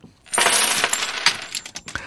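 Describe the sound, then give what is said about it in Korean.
A coin drops and rattles against a hard surface, a bright metallic clatter of bounces and spins that gradually settles, with a few final clinks near the end. “자, 동전 떨어지는 소리가 오늘 보물소리인데 한번더 들려드릴게요.”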